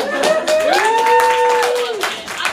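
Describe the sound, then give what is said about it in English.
Audience applause, a dense steady wash of many hands clapping, with a sustained rising whoop from one voice riding over it before it tapers off. “give it up for yourselves.”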